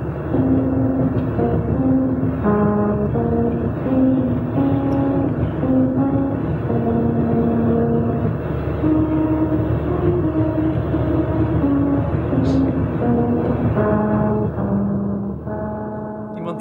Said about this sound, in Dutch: Friese volkslied, uitgevoerd door een eh, auto die over ribbelrandjes rijdt